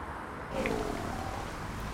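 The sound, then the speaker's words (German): A lion growls in a low, sustained rumble as it walks sluggishly toward someone, the growl swelling about halfway through and rolling steadily to the end, not loud, with no voices. “Ein Löwe geht irgendwie träge auf Ritz zu.”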